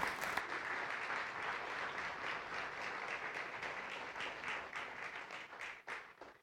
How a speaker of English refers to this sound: That's the warm up applause for what comes after the sermon.